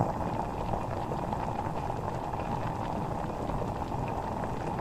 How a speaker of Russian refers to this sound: Сначала нам нужно обварить в кипятке сельдерей и красный болгарский перец. Вскипятите кастрюлю воды. И опустите туда сельдерей и красный болгарский перец.